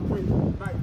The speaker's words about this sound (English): Heavy strong winds.